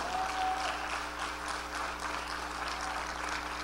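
An audience applauds steadily for several seconds, a dense wash of many hands clapping at a sustained, even level with no voices over it.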